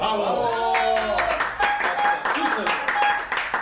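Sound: applause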